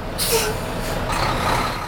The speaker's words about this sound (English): Interstate 70, which connects Denver to the famous ski resorts of the Colorado Rockies, is a parking lot. SUVs with ski racks choke the thoroughfare alongside scores of idling semi trucks.